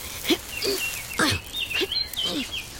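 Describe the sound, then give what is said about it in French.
A house sparrow chirps repeatedly, a string of short, bright notes at a steady pace, moderately loud, with no voices. “J'entends le chant d'un moineau.”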